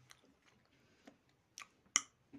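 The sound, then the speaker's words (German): Crisp crunching of corn being chewed, with several sharp bites at irregular intervals and the loudest crunch near the end, no talking. “Mais. Oh, der war clean, clean.”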